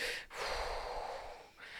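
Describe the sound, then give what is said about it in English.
A voice imitates heavy, rasping respirator breathing like Darth Vader, loud, with long hissing breaths broken by two brief pauses, like a mask-filtered inhale and exhale. “in the last few episodes you can hear us breathing a fair bit on mm. the podcast”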